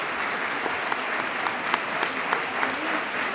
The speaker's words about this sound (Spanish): Continúan el aplauso, largo aplauso al pregonero por parte de los cofrades que hoy se dan cita en este Teatro Infanta Honor.